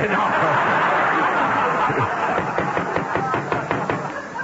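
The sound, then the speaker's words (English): A run of hard, rapid knocks on a door, about a dozen sharp raps in a steady rhythm, loud over a dense background of murmuring and light laughter. “can't be Frank Sinatra. He can't knock that hard.”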